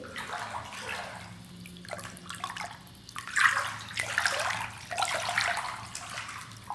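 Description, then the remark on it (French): Water sloshes and laps in a shell- or egg-shaped wellness flotation pod, with soft swirling at first, then a few fuller splashing surges toward the end. No one speaks. “Graviti : notre immersion dans une capsule de flottaison bien-être”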